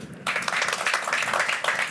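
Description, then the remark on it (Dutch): A crowd at the Plein Publiek show breaks into sustained applause welcoming a guest writer, many hands clapping in a dense, steady wash that starts abruptly after a brief quiet moment and stays loud throughout. “Geef hem een hartelijk applaus.”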